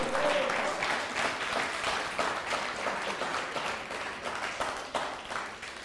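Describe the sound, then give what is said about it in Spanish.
A crowd at a Shabbat gathering breaks into sustained applause and ovation for God (HaKadosh Baruch Hu), a dense wash of many hands clapping steadily for several seconds, fairly loud throughout with a brief high vocal note near the start. “Un fuerte aplauso y ovación para Akadosh Hu.”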